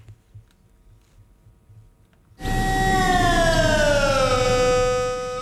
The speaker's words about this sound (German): Genau so tönt es nach dem Mittag in der ganzen Schweiz wegen dem Sirenentest vom Bund. Im Notfall soll die Bevölkerung so gewarnt werden.